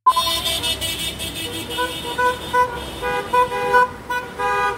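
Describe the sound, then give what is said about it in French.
Many car horns honk over and over in overlapping bursts, some long and some short, above a steady rumble of street traffic, loud: a protest by a few dozen cars, some with Brazilian flags, on 1 May in the streets of Araraquara, Brazil. “Les klaxons que l'on entend ici, ce n'est pas la joie des supporters après une victoire du club local, mais le son d'une manifestation, le 1er mai, dans les rues d'Araraquara, quelques dizaines de voitures, certaines avec des drapeaux brésiliens”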